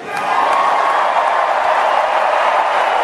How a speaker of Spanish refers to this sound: Y no paran los aplausos, ¿eh?